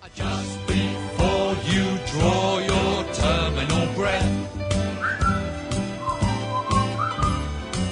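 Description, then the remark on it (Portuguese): A whistled melody floats above a loud, full band accompaniment, with clear whistled phrases in the second half over steady rhythmic chords and bass. “Vamos assobiar aí.”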